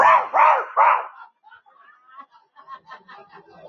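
A small chihuahua lets out three quick, high-pitched barks in a row, loud and sharp, followed by softer yips and whimpering noises that trail off.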